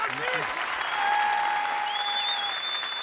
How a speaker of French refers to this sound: Merci beaucoup, on peut l'applaudir.